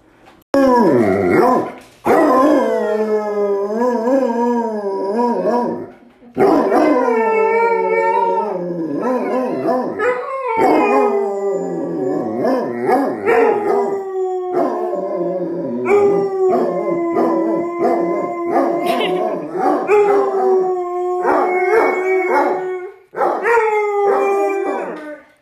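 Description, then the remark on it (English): Two dogs howl together in long, wavering, overlapping cries that rise and fall, loud, with brief pauses between bursts and no talking. “good dogs. T Rex and Charlotte wanted to sh- share their vocal stylings with you this week.”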